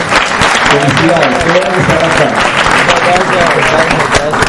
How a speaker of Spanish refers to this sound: ¿Cuántos están acá por primera vez? Por favor, levanten su mano los invitados. Ok, muy bien, un aplauso para ustedes de bienvenida.